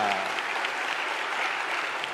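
An audience claps steadily for a man who has spoken about receiving confirmation, a dense wash of many hands filling the whole clip at an even, moderately loud level with no voices rising above it.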